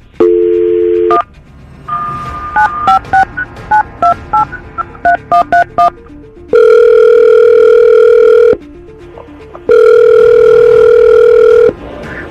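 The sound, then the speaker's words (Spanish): A telephone call is being dialed: a steady dial tone hums for about a second, followed by a quick run of keypad beeps at varying pitches, then two long, loud ringback tones separated by a pause. “ok, quédate liga telefónica.”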